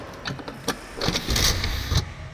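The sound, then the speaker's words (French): A mechanical whirring and clunking as the hatch of an empty storage tank is driven open, with a motorized grind building to a loud, steady rush before cutting off abruptly, with no one talking. “Attendez, je vais vous ouvrir le réservoir là.”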